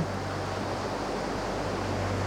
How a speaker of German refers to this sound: Die Wellen gleiten sanft an deinen Füßen vorbei und ziehen sich auch gleich wieder zurück.